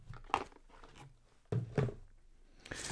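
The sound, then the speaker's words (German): Crinkly packaging in a box holding miniatures rustles as someone rummages through it, in a few short, crunchy bursts with brief quieter pauses between them, no voices. “Ich raschel nochmal für euch.”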